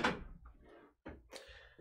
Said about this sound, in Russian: Так, сейчас я открою да, ну, дверь